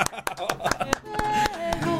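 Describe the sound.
Hands clap in a steady, even rhythm, roughly four sharp claps a second, welcoming a guest recording artist, with a sustained tonal voice or music sounding underneath in the second half.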